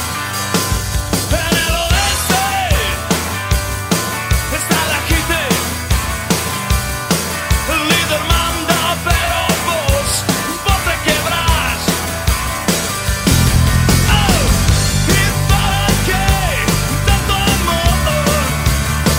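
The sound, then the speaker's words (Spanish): A loud rock song plays throughout, with a driving drum beat, dense guitars and a sung vocal line; the low end grows heavier and fuller over the last few seconds. “ahora vamos a la tanda escuchando el … de …”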